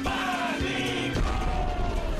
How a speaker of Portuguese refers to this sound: Muito obrigado pelos aplausos